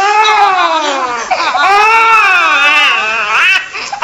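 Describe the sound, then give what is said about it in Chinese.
A baby wails continuously in strained, raspy cries, the pitch wavering up and down with a brief catch near the end, loud and with no other sounds around it. “你看，小猴子都哭哑了。”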